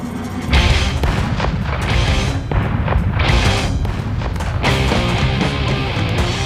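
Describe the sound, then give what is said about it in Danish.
Heavy gunfire rages continuously among trees, with loud shots and booming bursts piling over one another in a dense, chaotic barrage, with no pauses and no voices. “Et skud brager ind gennem træerne.”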